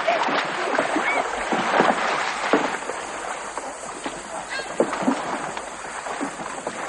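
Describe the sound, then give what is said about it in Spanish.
Canoes carrying Jesuits and a cardinal's luggage glide through water among lush vegetation in the morning, with a steady wash of splashing and paddle strokes, irregular soft slaps rising now and then over a continuous, fairly loud watery hiss. “En otras canoas viajan otros jesuitas y el equipaje del cardenal.”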